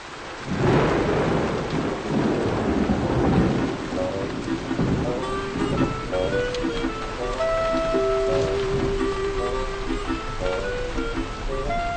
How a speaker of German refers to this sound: utasikia mambo ambayo hutokea kwenye maduka haya makubwa supermarket wakati wa mvua sikiliza kwa makini